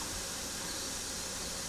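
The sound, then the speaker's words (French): A stockpot of dye bath made with sumac cones simmering gently on the stove to extract the colour, giving off a steady, soft hiss like steam with faint low bubbling underneath, continuous, with no voices. “Alors ça, c'est le bruit de la teinture.”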